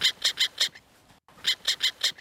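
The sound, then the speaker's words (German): A voice imitates a black-headed gull's alarm call, warning of danger: two sets of four short, harsh, rhythmic squawks separated by a brief pause, fairly loud, with no other talk. “Ähm, wie ging nochmal das möwische Achtung, Gefahr? Versucht's mal. Ganz kurz, einfach.”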